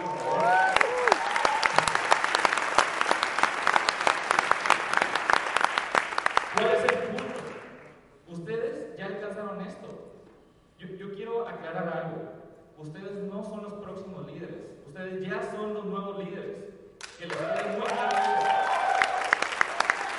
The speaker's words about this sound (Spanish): Primero que nada, los quiero felicitar. Dense un increíble aplauso por estar aquí.